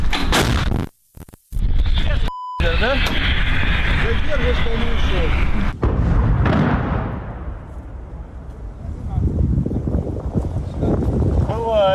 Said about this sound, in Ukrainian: Заряжен. Постріл!